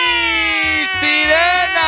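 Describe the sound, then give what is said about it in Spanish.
A loud siren holds a steady, buzzy high tone for the whole stretch, dipping slightly in pitch a couple of times, over a low, rhythmic thumping pulse. “¡Sirena!”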